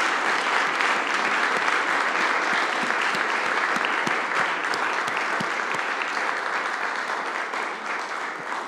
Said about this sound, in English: All right, can we give one more round of applause for our graduates?